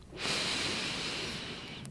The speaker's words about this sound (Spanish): Entonces, toma una respiración súper profunda. Inhala, voy a respirar contigo.